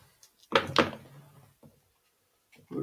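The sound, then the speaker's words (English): Dice tumble onto a table: two sharp clattering knocks, a short rattling roll that settles, then a few lighter taps and clicks afterward. No one speaks. “Um, okay, let me get some dice here.”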